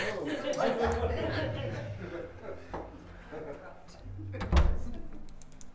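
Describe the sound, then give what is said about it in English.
A door is closed to make it quieter, thudding shut with a single solid knock near the end, heard over background chatter and a bit of soft laughter. “There, close that door, make it a little quieter.”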